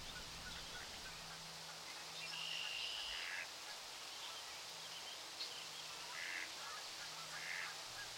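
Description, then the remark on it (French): Faint duck quacks come in a few short bursts over a steady outdoor hiss, with a low hum running underneath, by a river near a railway bridge. “Une fois rendu aux quatre bancs, reprenez votre souffle en observant le pont ferroviaire et les canards.”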